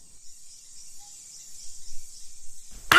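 Steady, high-pitched insect chirping fills a rainforest ambience, a continuous shimmering drone with a faint low rumble beneath, ending in a sudden loud burst of noise.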